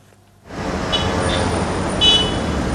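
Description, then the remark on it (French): A couple of short car horn toots, one faint and one slightly louder, poke out of a steady roar of street traffic that starts abruptly. “Voilà, le petit klaxon, il avait échappé la première fois.”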